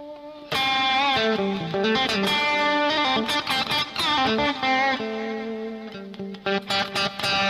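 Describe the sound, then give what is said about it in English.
Electric blues guitar picked with a soft, light touch: a flowing single-note phrase with sustained, ringing tones and bent notes, played alone without any voices. “When you pick really soft,”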